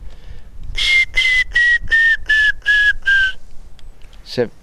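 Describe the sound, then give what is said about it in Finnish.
A person whistles an imitation of a grey-headed woodpecker call: a run of seven clear, evenly spaced notes that slowly fall in pitch, followed by a brief sliding whistle. “Se on harmaa päätikka, niin se”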